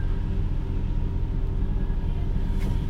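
A car passing by, heard as a steady low engine and road rumble that holds at an even level throughout, with a faint brief hiss near the end and no voices.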